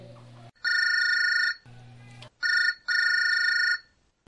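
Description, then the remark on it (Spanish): A mobile phone rings in loud, bright electronic bursts, three long tones with a short one between, alternating with a lower, quieter hum, clear with no talking. “Discúlpame, tengo que atender esta llamada.”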